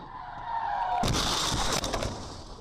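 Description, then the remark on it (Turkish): A car being dragged by a bus skids and scrapes along the road at a four-way junction in Gölhisar, Burdur, Turkey, for about two seconds, a loud, harsh grinding burst that starts suddenly after a steadier tone of traffic noise. “Üzerine otobüsün sürüklediği otomobilin geldiğini görünce saniyelik hareketle kıl payı kurtuldu.”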